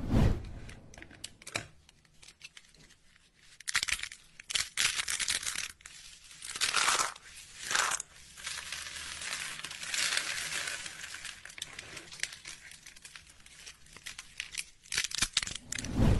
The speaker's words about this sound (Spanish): ahora vamos a escuchar este audio también de ASMR de alguien que está partiendo pedacitos de jabón hasta destruirlos.